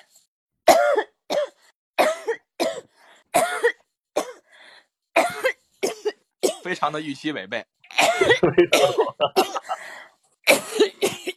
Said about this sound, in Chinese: 真的我太想咳嗽了。 我忍不住了。